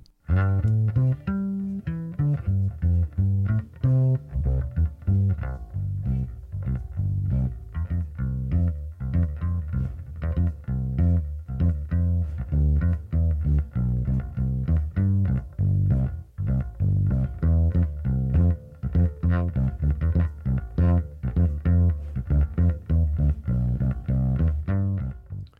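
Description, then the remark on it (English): Solo electric bass recorded clean through a direct input, a steady stream of plucked low notes with a dry, rounded tone, played continuously with no other instruments or voices. “But this one simply has the direct input. It sounds nice and clean.”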